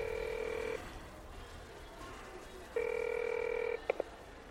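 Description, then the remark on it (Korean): A telephone ringback tone sounds twice on a phone call that does not get through, each long steady buzzing beep lasting about a second with a two-second gap between, followed by a couple of short clicks, over a soft background hiss. “이 사람 아, 왜 이렇게 전화가 안 돼?”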